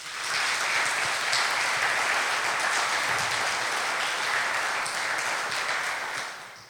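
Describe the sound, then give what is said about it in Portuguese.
A church audience applauds the Lord during a sermon, a dense, steady wash of clapping that holds strong for several seconds before tapering off at the end. No one speaks over it. “Aplaudo ao Senhor por essa verdade.”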